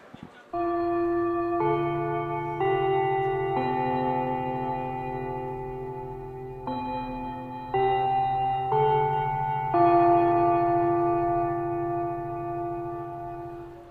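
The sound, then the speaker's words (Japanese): A classic school bell chime plays a slow melody of eight ringing, sustained tones in two phrases, each note blending into the next, clear and fairly loud with no talking, marking the start of a class on soy sauce. “このチャイムの音私大好きなんですよね懐かしいですね 懐かしい感じの近隣の学校のチャイムかなって一瞬勘違いしたくなるような”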